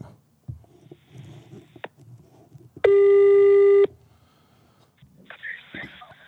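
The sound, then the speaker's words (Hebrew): An outgoing call's ringing tone sounds once, a loud, steady electronic beep about a second long, set against faint background rustling and murmur. “אורייט, right, אז אה, בואו אה, בוא נעשה עוד שיחת טלפון.”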